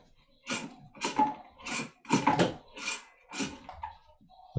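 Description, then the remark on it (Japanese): A ventilation fan gives off a series of about six soft popping bursts at a fairly steady pace, moderately loud, with no voices. “換気扇みたいなやつがポンポンいってた。”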